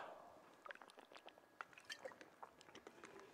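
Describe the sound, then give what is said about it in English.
Quiet wet sounds of water being poured or sipped, a scattered run of small liquid clicks and gurgles over a few seconds, with no talking. “All right, so I'm gonna need some water for this.”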